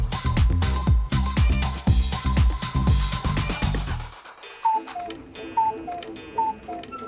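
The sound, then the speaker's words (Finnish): A clock ticks at a steady, even pace over a dense musical backing, which cuts off partway through, leaving sparser chiming tones with the ticking underneath. “Kello viisari värähtää 11 ja työporukan lounasjuna alkaa tehdä päivittäistä retkeä kohti ruokalaa.”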